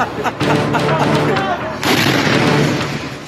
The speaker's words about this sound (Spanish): Mientras la gente buscaba refugio, comenzaron a escucharse las primeras explosiones en cielo israelí.